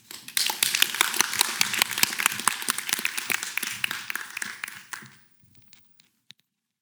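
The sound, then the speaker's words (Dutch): An audience at an evening literary reading applauds warmly for about five seconds, a dense wash of many hands clapping at once, then it thins out to a few scattered claps and fades to quiet. “Geef een hartelijk applaus”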